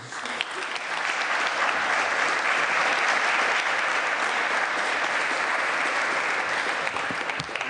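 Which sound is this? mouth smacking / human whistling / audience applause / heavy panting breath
audience applause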